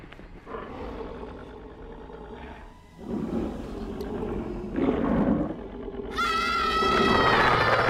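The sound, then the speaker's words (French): Deep, layered growling of Cerberus, the multi-headed guard dog of Greek myth, several snarls overlapping in loud rumbling waves that swell and end in harsher, higher-pitched snarling. “Chez les Grecs, ce gardien sera incarné dans la figure du cerbère, un chien à multiples têtes dont le grognement seul suffit à éloigner les ambitieux.”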